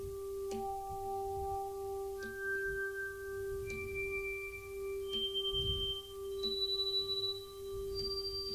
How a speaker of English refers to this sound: And so, as you can see, we can make all sorts of tones out of that. Depending on where you put the drawbars.